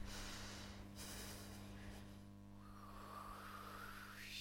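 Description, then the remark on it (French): Slow, heavy breathing imitating Mont Blanc breathing, airy and rasping with a snort-like edge, over a steady low hum. No one speaks. “Le Mont Blanc respire, écoutez-le.”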